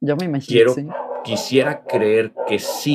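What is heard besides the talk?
dog barking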